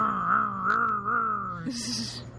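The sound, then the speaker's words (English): A voice imitates a revving motorcycle, a buzzing drone that rises and dips in pitch for about two seconds before ending with a breathy, hissing rasp. “Vroom vroom motorcycle sound.”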